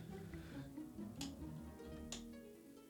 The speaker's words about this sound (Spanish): Eh, nos apagaban la luz de la cocina, pero se escuchaba el clic el ah, del interruptor. Del interruptor. Y apagaban la luz.